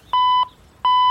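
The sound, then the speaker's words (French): Two short, steady electronic beeps from an answering machine on a large telephone switching on after a button is pressed, each a clear pure tone with a brief pause between them. No voices. “Non non, touche pas, ça met en route mon répondeur.”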